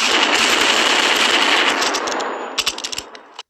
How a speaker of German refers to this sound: Ich merke gerade eben, ich habe hier noch was einstecken. Warte mal, wenn ich damit jetzt schieß.